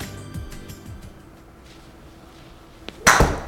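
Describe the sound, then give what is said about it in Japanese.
A golf club strikes the ball with one sharp, bright crack that rings briefly, preceded by a faint tick and a few seconds of quiet low rumble. No one speaks. “おおなんかねいい感じでしたね今すごくいい音鳴りました”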